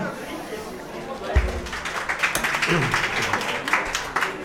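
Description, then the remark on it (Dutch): A crowd breaks into applause after a low thump, dense clapping building and continuing steadily, with some voices and chatter mixed in underneath. “Jongens, dames en heren, applausje.”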